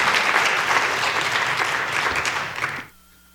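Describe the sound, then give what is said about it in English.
An audience applauds the rainbow Standing on the Side of Love campaign logo on the new Order of Worship cover, with dense, steady clapping that holds loud for nearly three seconds, then cuts off abruptly into near silence. No voices are heard. “With its, yes, applause, are, applause is merited.”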